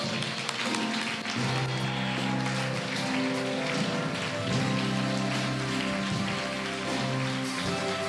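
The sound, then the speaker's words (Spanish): An audience claps steadily for about eight seconds, a dense, even wash of many hands with no pauses, while sustained musical tones hum underneath. “Alguien que aplauda con poder.”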